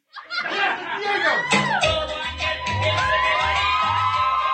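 At a drag show, an audience member shouts loudly from a noisy crowd as the performer points a hand at the audience, with cheering and laughter around the shout and a steady thumping beat underneath throughout.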